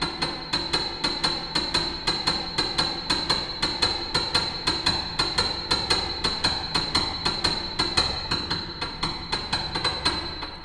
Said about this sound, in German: werden nur die beiden höchsten Tasten des Klaviers benutzt und der Klang, der dazwischen entsteht.